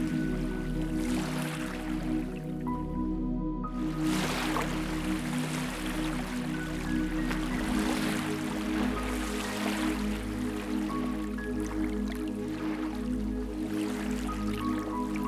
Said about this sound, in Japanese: 砂浜が広がっていますあなたはそこに寝そべって小さな波を見つめていきます